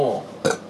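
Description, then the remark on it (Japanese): A short, accidental burp bursts out abruptly, a low voiced gulp with a brief breathy edge, following a moment of low vocal sound and fading quickly. “あゲップ出ちゃったあの出しに行ったゲップじゃないからもう出ちゃったやつから”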